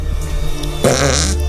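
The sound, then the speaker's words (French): A fake fart made with an arm: after a low steady hum, a loud, wet, sputtering blurt starts and rasps on for most of a second, with no one speaking. “Avec quelle partie de son corps est-il en train de péter”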